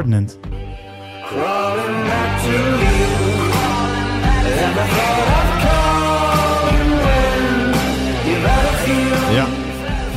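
A rock song plays loud and continuous, with a sung vocal line riding over a full band of guitars and drums, without pause from start to finish.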